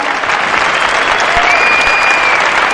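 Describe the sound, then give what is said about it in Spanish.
Loud, sustained audience applause at a comedy monologue, a dense steady wash of many hands clapping with no gaps, and a faint whistle rising briefly above it partway through. “¡Ese aplauso para vosotros!”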